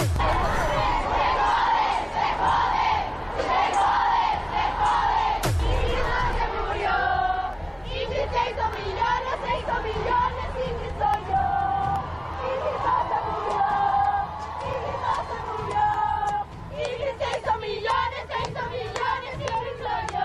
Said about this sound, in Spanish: Estas son sus voces, son sus reclamos, sus consignas, sus protestas, sus gritos. Esto pasó ayer en la marcha, en una mega marcha en la capital del país.